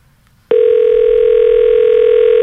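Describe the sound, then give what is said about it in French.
A loud, steady telephone dial tone switches on abruptly after a brief quiet moment and holds unbroken to the end, with no speech. “Le monde a peur, man, à cette heure, le téléphone.”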